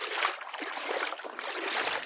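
nature, water trickling

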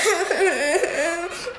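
human body sound, girl crying

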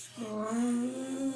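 machine, air conditioner running

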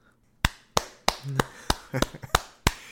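human body sound, hand clapping

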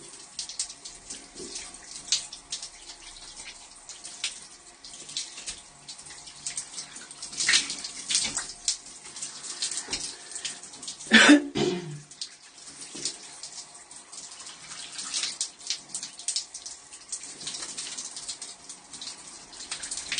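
household object, shower running water

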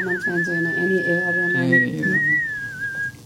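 human body sound, person whistling a tune

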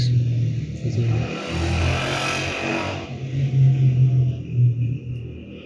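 vehicle, motorcycle passing by outside

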